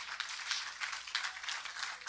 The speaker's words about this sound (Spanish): Póngase de pie y déle ese aplauso al Señor, por favor. Póngase de pie, déle ese aplauso de alabanza al Señor.